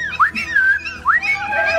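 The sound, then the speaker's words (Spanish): Two sharp rising whistles calling a seller's labrador dog and puppies, each a quick upward sweep followed by a wavering held tone, sounding clearly over a faint low hum. “Eh, eh, espérate que los llamo.”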